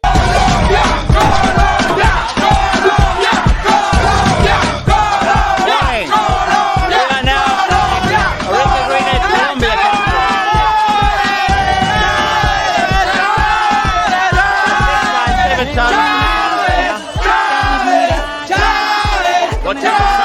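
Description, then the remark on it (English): A dense crowd of Colombian cycling fans yells and cheers loudly and nonstop outside a team bus at stage nine of the 2015 Vuelta, many voices overlapping into a raucous, pulsing roar with shouted cries rising above it throughout. “Esteban was in the red jersey, and on stage nine, it was just pandemonium out the front of the team bus.”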